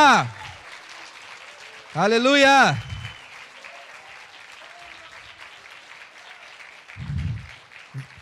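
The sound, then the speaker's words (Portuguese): A church audience claps in praise to the Lord, a dense, even patter of many hands throughout, while a voice shouts loudly over it twice near the start; a few low thumps come toward the end. “E dê uma salva de palmas ao Senhor, porque Ele é mais do que vencedor na sua vida.”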